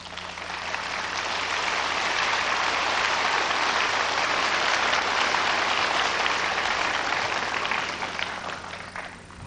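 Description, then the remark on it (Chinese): Warm, sustained applause from an audience, a dense wash of many hands clapping at steady volume for several seconds before gradually tapering off at the end. “再请大家报以最热烈的掌声。”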